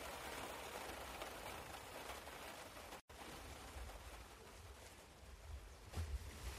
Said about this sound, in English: And then we drive home in the rain, under a black, black cloud, the remnants of Hurricane Gordon which is disrupting the Ryder Cup. How could they not have expected rain in Ireland?